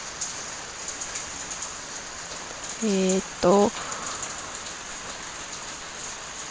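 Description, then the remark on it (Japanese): Steady rain hisses outside throughout, a continuous even wash of drops. Partway through, a person briefly says a couple of hesitant filler words over it. “今日は雨の日ラッキーとか思わへんかったなって思ってますただの休みの日に雨が降っただけで終わってたよなって思います”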